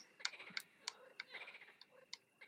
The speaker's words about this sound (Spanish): Es que cómico se escucha el teclado.